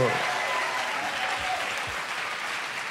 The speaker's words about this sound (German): Und es wäre sehr cool, wenn wir es schaffen, ihn mit einem mega enthusiastischen Wuppertaler Doppelwopper-Applaus zu begrüßen.